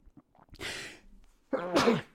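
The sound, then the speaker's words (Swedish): A single loud sneeze: a sharp breathy rush of air, a brief pause, then a voiced, explosive burst that trails off. No talking. “Jag var tvungen att nysa, ursäkta.”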